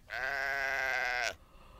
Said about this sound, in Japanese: どこにヤギがこのスタジオのどこにヤギがいたというのでしょう皆さん聞きましたか